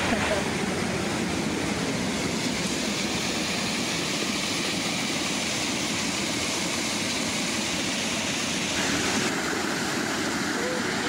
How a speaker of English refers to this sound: Look at that waterfall. Yeah. Look at it gushing out.